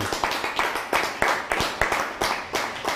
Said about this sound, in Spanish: Denle un fuerte aplauso también a Venezuela, ¿por qué no?